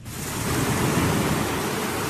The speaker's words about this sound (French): Ah oui, bien sûr, le bruit oh, des vagues, c'est un de mes préférés.